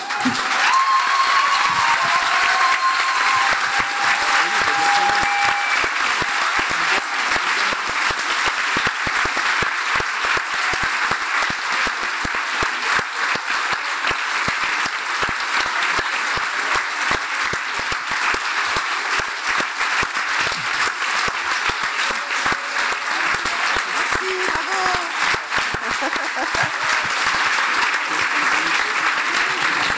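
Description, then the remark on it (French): Loud, sustained applause from a large audience, given before the winner of the 2020 Prix Sommer is named, fills the whole stretch, a dense steady roar of clapping with no pauses. “attendez quand même que vous avez fait un tonnerre d'applaudissements avant même que je prononce son nom.”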